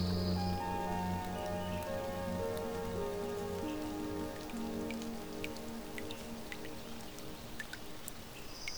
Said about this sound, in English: No, I think it's something else. A sort of dripping noise? I don't think it's the rain. Huh. It looks like the roof is leaking over here.